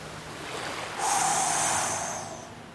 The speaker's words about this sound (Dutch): Oh, wat diep. Wat donker. Wat een golven.